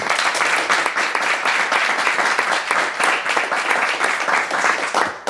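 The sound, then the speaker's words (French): A crowd applauds steadily for about five seconds, the many overlapping claps forming a loud, dense, crackling wash that holds an even level before cutting off at the end. “applaudissement applaudissements, ça me va.”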